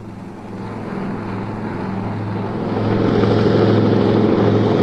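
A steady, droning engine of a helicopter squadron with a low, rumbling whir, growing noticeably louder partway through as the aircraft approach. No voices.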